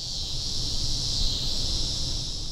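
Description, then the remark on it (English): A loud, steady buzzing chorus of cicadas drones on without a break, a dense high-pitched hum filling the whole stretch over a faint low rumble, with no voices. “I'm Curious City producer Jason Marck, and Amy feels like these cicadas that are driving her nuts seem louder than usual.”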